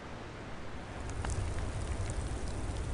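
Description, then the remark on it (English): Heavy cold rain pours down in a steady, dense hiss on a dark, stormy night at sea, with a few sharper drop ticks scattered through it and a low rumbling undertone beneath. No voices are heard. “Hundred-foot waves crashed and cold rain poured.”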